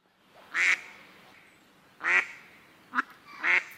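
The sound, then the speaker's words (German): Three loud, raspy duck quacks spaced about a second and a half apart, each a short harmonic burst, with a brief sharper call between the last two; no one speaks. “Wasservögel im Winter lautet das Stichwort zu deiner nächsten Meldung”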